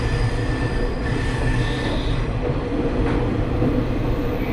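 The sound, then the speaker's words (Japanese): A trolley train rumbles steadily over the Handa River bridge (Handagawa bridge) in Japan, a dense low roar with rattling wheel noise and faint high metallic squeals drifting above, constant in loudness with no voices. “釣りの名所でも知られます半田川、半田川橋梁をまもなく渡ります。”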